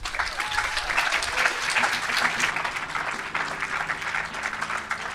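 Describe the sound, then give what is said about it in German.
Sustained applause from a crowd after an interview, a dense, steady patter of many hands clapping at an even loudness for several seconds with no voices standing out. “Applaus für Daniela vom Happy Radio.”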